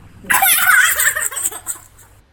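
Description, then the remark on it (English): A girl's voice imitates a magpie hit by a car, with a loud burst of high, warbling squawks and gurgles that wobble in pitch and then fade out after a couple of seconds. “sound like a magpie we got hit by a car.”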